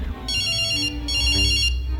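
A telephone rings twice, each ring a bright, high-pitched warbling trill lasting over half a second, separated by a short gap. It's loud and clear, with no voices.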